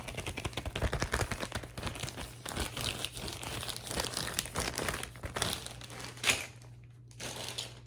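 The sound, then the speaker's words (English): A plastic Ziploc bag used to wrap gift items crinkling, a continuous busy rustle of crackling plastic with brief louder crunches, a low steady hum underneath and a short pause near the end. “Okay, so I'm gonna show you more of the stuff that I brought for you so that's one bag of stuff because um what better way to wrap a gift than in a plastic Ziploc bag.”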